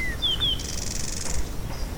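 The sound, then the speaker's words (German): A few short, high-pitched squeaky calls from several rails all around, quick descending peeps close together, followed by a fainter hissing trill, all over a steady low outdoor rumble; no one speaks. “Ringsherum hört man da so einzelne Rallen immer fiepen.”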